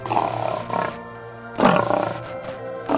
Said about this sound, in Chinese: 狮子继续吼，听得出来它很伤心。